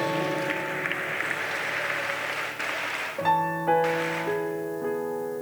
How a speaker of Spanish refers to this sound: Dale un fuerte aplauso al Señor Jesucristo.